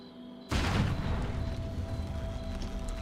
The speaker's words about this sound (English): The bomb was small but powerful, and so loud. It blew apart the transformer instantly, sending sparks and shrapnel everywhere